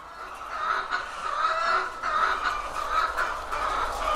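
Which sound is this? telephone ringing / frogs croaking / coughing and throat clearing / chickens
chickens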